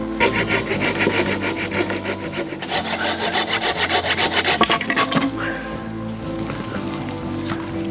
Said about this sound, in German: Und die haben wir dann angefangen zurechtzusägen jetzt ein Floß. Ja, wir bauen jetzt ein Floß. Das kann nicht so schwer sein, oder? Sehen zu, dass wir ein paar Baumstämme und zusammen sägen hier von dem Totholz.